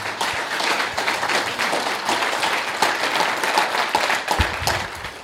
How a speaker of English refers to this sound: So, can you guys get a big round of applause for our speakers tonight?